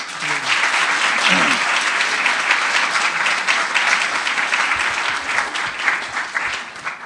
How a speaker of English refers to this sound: Uh, so let's give the staff a, a round of applause.